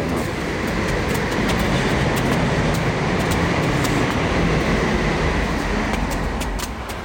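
Trains pass at a station, a loud continuous roar of wheels on rails with faint rhythmic clicks and metallic squeals, holding level for the whole stretch with no voices.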